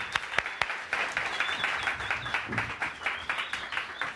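An audience bursts into sustained applause to welcome a guest coming forward, dense overlapping claps with a few sharp louder ones at the start, holding steady and loud throughout with no talking.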